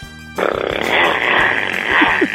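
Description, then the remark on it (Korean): A voice imitates a motorcycle with a sustained, buzzing, lip-rattling engine drone that starts abruptly and holds steady for about two seconds, fairly loud, with slight revving rises near the end, performed as a contestant's entry in a sound-impression contest. “자, 오토바이. 민주지간 오토바이 들어볼게요.”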